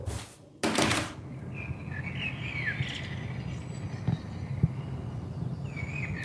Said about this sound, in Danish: Men nu er klokken 4, og jeg er hjemme, og tænker måske, vi kan gå udenfor lige og se, om man kan fange fuglene. Så går jeg lige udenfor her. Og se, om vi kan høre fuglene herude.